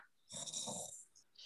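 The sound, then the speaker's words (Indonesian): A person mimics a snore with their voice: one rough, rattling snort lasting under a second, fairly loud, followed by a soft breathy trailing sound. “Jadi di hidung yang bisa bikin ngorok”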